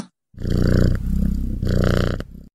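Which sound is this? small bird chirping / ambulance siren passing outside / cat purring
cat purring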